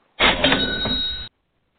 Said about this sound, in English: So you're going to want to listen for this tone. I'm going to play it again. See in here, it's cash register. If this thing will work.